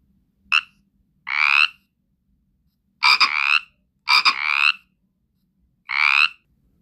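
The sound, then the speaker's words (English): A frog croaks in five separate bursts, each a short rasping call with a pause between, heard clearly against a quiet background. “Yeah, it was a frog.”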